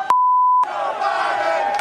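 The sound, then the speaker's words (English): A steady high electronic beep lasts about half a second, then a loud crowd takes over, chanting "Let's go, Brandon" together in a dense, sustained roar of many voices until the end. “you also told me I can hear the chants from the, the crowd.”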